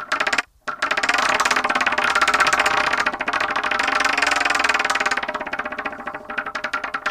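The 'Wheel of Torture' prize wheel is spun to pick the next thesis. It rattles continuously for several seconds, a dense, steady clatter of rapid ticks that briefly cuts out near the start, then runs on loudly before gradually slowing and thinning.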